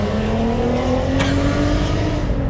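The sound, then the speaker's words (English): A loud race car engine revs and rumbles steadily, its pitch slowly climbing as it roars past on a road, passing again after turning around at the end of the road, with a constant heavy drone throughout and no talking. “he went all the way down the road and turned around, came back, passed me again.”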